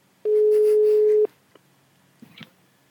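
A single loud, steady ringback tone lasting about a second, as heard when placing a phone call, followed by quiet and a faint click or rustle as the line is picked up.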